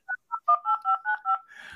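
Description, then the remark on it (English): A quick run of about eight keypad tones dialed on a landline house phone, short dual-pitched beeps in steady rhythm, each one clear, ending in a brief burst of clatter. “What is that contraption in your hand? It, it's called a phone.”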